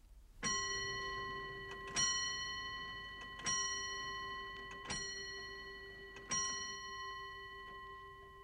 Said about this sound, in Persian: It's five o'clock. درسته. ساعت پنجه. حالا نوبت شماست که تمرین کنید. اول به تعداد زنگهای ساعت گوش کنید و بعد بگین که چه ساعتیه.